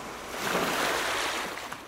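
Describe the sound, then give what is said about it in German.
Sea waves break on a shore in North Schleswig in a steady, hissing wash that swells after a moment and then slowly recedes, moderately loud, with no voices. “Lieber seine Aufmerksamkeit auf all die schönen Dinge richten, die uns hier in Nordschleswig umgeben. Das Meer beispielsweise”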